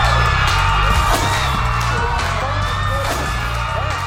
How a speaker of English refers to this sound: They need to stop with everybody screaming when there's no one in the room. It's weird to watch.